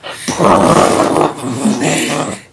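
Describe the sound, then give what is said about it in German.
A deep, guttural growled vocal from a song by a Czech goregrind band, loud and raspy, roaring almost continuously for about two seconds with a brief dip in the middle before fading. “und im Anschluss hören Sie einen Song der tschechischen Gorgrind Band”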